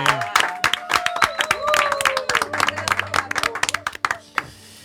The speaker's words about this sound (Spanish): Ese silencio estaría guay que lo rellenaseis con un aplauso.